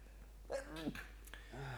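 A forceful sneeze caused by pollen, with a sharp breathy burst, followed by a brief voiced exhale.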